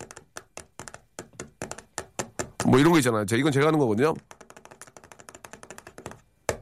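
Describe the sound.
Quick, sharp taps on a desk beat out a steady rhythm, pausing briefly while a person speaks, then resuming in a faster, lighter pattern, as a radio host demonstrates an example rhythm for listeners.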